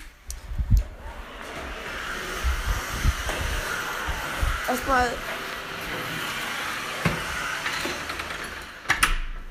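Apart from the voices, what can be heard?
vacuum cleaner running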